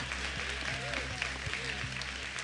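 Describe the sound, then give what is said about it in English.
A church audience claps in praise during a sermon, a dense wash of many hands that fills the whole clip, with a low rumble and faint murmuring voices underneath. “If you're going to clap, clap, church.”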